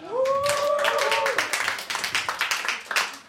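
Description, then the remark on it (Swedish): An audience bursts into dense, steady applause, many hands clapping together, with a brief high whoop or cheer rising over it at the start, welcoming the guest Leif GW Persson. “En applåd!”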